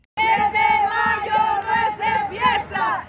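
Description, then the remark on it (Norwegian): A crowd of demonstrating mothers chanting and shouting together in a loud, sustained protest, voices rising and falling in rhythmic bursts for the whole stretch. “Mai er for å slåss og protestere, roper demonstrerende mødre.”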